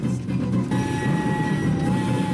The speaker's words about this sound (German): Und dann stoppt der Zug.